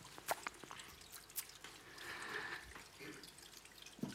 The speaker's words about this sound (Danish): det regner virkelig, hva'?